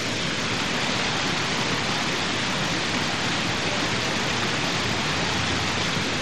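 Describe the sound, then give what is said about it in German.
Steady, dense splashing of a fountain, a continuous hiss of falling water with no pauses, moderately loud, with no voices. “dann können wir ein bisschen dem Springbrunnen zuhören und uns gegenseitig anschweigen.”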